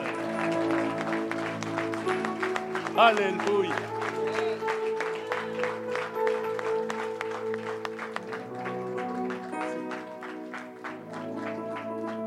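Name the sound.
audience applauding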